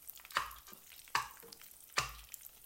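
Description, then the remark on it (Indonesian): Food is stirred and mixed as it fries in a pan over a rather high flame: three bright, scraping swishes come at fairly even intervals over a steady crackling sizzle, with no one speaking. “apinya rada kegedean gue rasa ini dicampur-campur gitu nggak apa-apa ya apinya rada kegedean”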